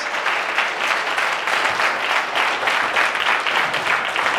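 A crowd of people claps steadily, a dense, loud wash of applause that holds for a few seconds without pause, with no voices rising above it.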